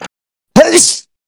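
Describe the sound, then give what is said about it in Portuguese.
A single sharp sneeze: a quick voiced intake bursting into a loud, hissy exhale lasting about half a second, with nothing else around it. “Saúde. Valeu.”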